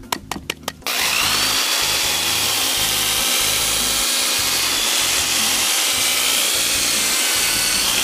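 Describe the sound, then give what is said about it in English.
A power drill whirs to life after a few brief clicks, then runs steadily with a gritty, abrasive hiss as a fine sanding disc grinds continuously against a surface. “All right, we're gonna go to the finer sanding disc.”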